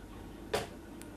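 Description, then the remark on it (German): A door swings shut and catches in its latch with one short, solid clack, followed a moment later by a faint second tick, amid quiet. “Ein letzter Blick aufs Bett, dann fällt die Tür ins Schloss.”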